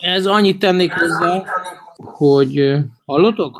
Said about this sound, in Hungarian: Hallunk, egy kicsit visszhangos vagy olyan furán, de nem tudom miért. Igen, igen, nekem is valami nem stimmel, de mindegy.